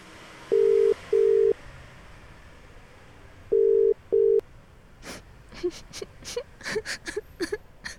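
A phone's ringback tone sounds in two double-beep cycles, steady and clear, as a crying person phones a friend, followed by irregular soft sniffles and whimpering noises near the end.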